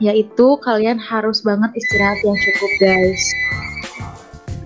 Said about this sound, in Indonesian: Itu apa sih? Itu suara telepon rumah gue.